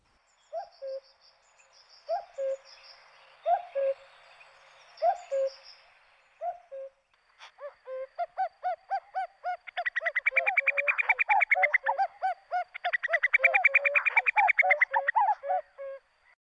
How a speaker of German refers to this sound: Ich denke, alle haben ihn erkannt, den Kuckuck.